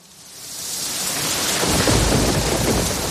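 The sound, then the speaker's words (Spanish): Steady heavy rain pours down as a deep rumble of thunder swells in, growing louder and filling the low end by the final seconds, with no voices present. “¿Y si dejas de escuchar esto? Sequía un peligro silencioso. Hace mucha falta, pero poco llueve.”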